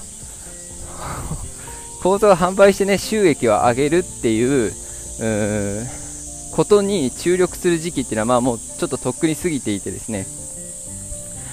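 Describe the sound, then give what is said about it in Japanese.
A loud, steady drone of cicadas buzzes continuously through the whole recording, a high shrill wall of sound, while a woman talks over it in the foreground. “これ私セミの声に勝ってるのかな”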